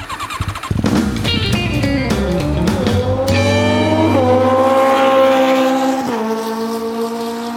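A motorcycle engine sputters to life and then revs loudly, its pitch climbing and dipping in a few throttle surges before settling into a steady, high idle roar, with no voices. The motorcycle had been banned from the road until it passed its inspection today.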